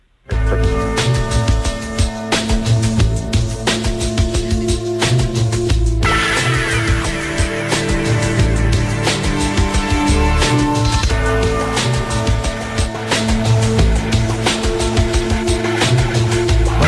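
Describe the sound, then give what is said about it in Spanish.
The soundtrack of the film The Boxer, directed by Sheridan, plays steadily and loudly throughout: sustained tones over a low pulsing bass, with the texture growing fuller and brighter partway through. No one speaks. “Escuchamos la, banda sonora de esta película de Boxer, el boxeador, que también eh, dirige Sheridan”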